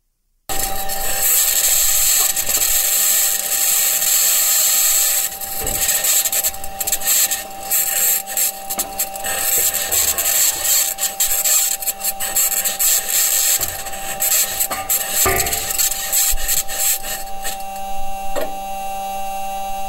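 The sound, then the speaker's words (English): Mars rover wheels rolling over rocky ground on the surface of Mars, in audio released by NASA, make a continuous harsh grinding and scraping, with creaky metallic squeals and rattling clicks throughout, steady and fairly loud with no voices. “NASA released some just some audio of what this thing sounds like as it's rolling around the surface of Mars.”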